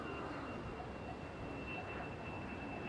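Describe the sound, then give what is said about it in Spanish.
A steady, broad roar of airplanes passing overhead at the large cemetery of Derio in Biscay, holding an even level throughout with a faint high whine on top. No one speaks. “El trino, la tranquilidad, solo se ve interrumpida por el intenso trasiego de los aviones.”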